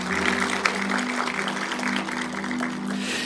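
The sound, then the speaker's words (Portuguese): An audience applauds for Jesus, dense overlapping claps forming a steady, even roar for a few seconds, with a faint low hum running underneath and no voices. “Dá um aplauso para Jesus aí, galera.”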